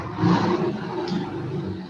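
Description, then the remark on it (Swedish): A motorcycle roars past, its engine a loud, steady low growl with rumbling harmonics that holds for about two seconds before cutting off abruptly. “Motorcykel.”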